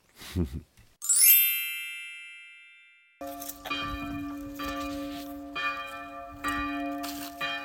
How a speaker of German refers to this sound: Ja, und hier hören wir sie nochmal, die Glocken im Kloster, die den Tagesablauf mehr oder weniger strukturieren. Ja, 6.45 Uhr in der Früh klingeln diese Glocken, läuten diese Glocken das erste Mal direkt vor meinem Fenster